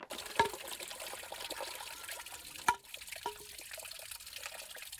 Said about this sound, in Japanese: これねラジオネームジャンダラーさんが送ってくれた獅子おどしの音なんですけどこれに関してはもうこれだけでも完成してるぐらいね 音がいいんですけど